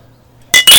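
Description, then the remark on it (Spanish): Beer bottles clink together twice in quick succession in a toast, bright, with a short ringing glassy tone after each tap and quiet before. “Así que pues vamos a darle salud.”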